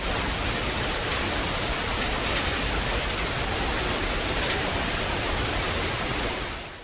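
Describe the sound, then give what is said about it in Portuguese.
Dense, steady downpour of heavy rain on an open, shelterless stretch of path fills the whole clip with a loud, continuous hiss and low rumble, no voices, easing slightly only at the very end. “O tempo que estava meio chuvoso logo se transformou em uma chuva muito forte.”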